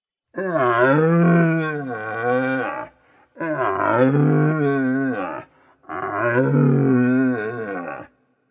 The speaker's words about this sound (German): Von irgendeiner Bergseiten her hört man den Ruf des suchenden Hirsches, der eher einem Jammern gleicht.